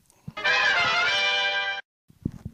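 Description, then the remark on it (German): A loud burst of brassy marching band music with rich, sustained chords, playing for just over a second before cutting off abruptly, followed by a few faint thuds. “Das, was du jetzt hörst, ist eine Marschkapelle.”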